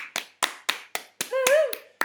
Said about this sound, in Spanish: Ay, seguramente ahora la gente esté en su casa escuchando ese aplauso y joder, qué hijos de puta, qué mal, qué mal nivelan el audio este.